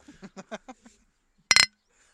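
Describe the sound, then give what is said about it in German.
A quick burst of rhythmic, laugh-like vocal sounds, then a brief pause and a single bright clink of glasses touching in a toast on a balcony, ringing only for a moment. “Prost!”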